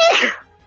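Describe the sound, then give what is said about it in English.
A single sharp, loud sneeze, bursting out and fading within half a second, followed by quiet. “Bless you.”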